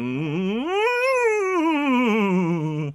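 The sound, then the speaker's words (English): A single sustained voiced glide rises smoothly in pitch, peaks, then slowly slides back down over about three seconds, a steady siren vocal warm-up exercise to get the range going that sounds almost like a dog's howl. “Um, well, this is called a siren, and it's good to get your range going.”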